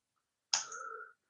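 A single sharp mouse click, clicking on a link on a web page, sounds out alone against silence, followed by a brief, slightly ringing tonal tail that fades within about half a second.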